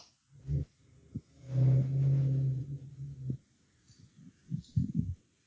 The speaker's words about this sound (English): that and the sound of the guy revving his motor up right outside my window.